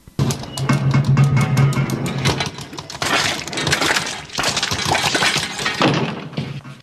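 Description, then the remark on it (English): Loud plumbing noise after the water is turned on: a low groaning hum with rapid rattling clanks, then a run of crashing, clattering bangs like metal and glass, continuing for several seconds with no voices. “All I did was turn on the water. That doesn't sound good. Okay. So the plumbing's not perfect.”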